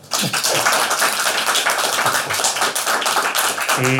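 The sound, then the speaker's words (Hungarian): A crowd applauds the author Péter Pető, editor-in-chief of 24.hu, at a book talk, many hands clapping in a dense, continuous patter that stays loud for the whole stretch, with no voices over it. “Én nagy tapsot szeretnék kérni a szerzőnek.”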